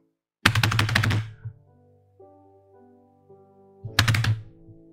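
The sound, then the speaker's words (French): Two heavy, thudding footsteps or paw steps land about three seconds apart, seeming to come from another room, each with a brief resonant rumble, while a faint low hum fills the quiet between them. “Des bruits de pas Ouais. Ou de pattes.”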